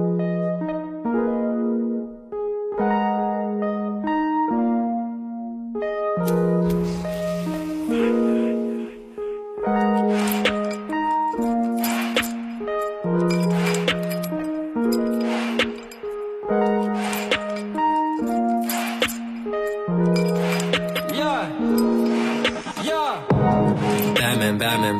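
A recorded rap track plays loudly and steadily. A looping melodic synth line opens alone, then punchy drums and hi-hats join in a repeating hip-hop beat that carries through to the end.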